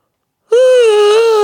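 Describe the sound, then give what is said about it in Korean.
A single loud, drawn-out voiced yawn, a real, deep yawn with the sound of air being drawn in, starting abruptly after a brief silence and holding a steady, moan-like tone for about a second before trailing off. “이게 진짜 하품이잖아요.”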